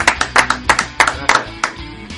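A short burst of applause for a guest musician after his song is played: sharp, fairly steady claps about three per second, loud and crisp, with no voices over them, fading slightly toward the end.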